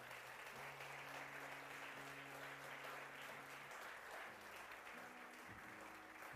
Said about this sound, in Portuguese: Aplauda bem forte a Ele, aleluia!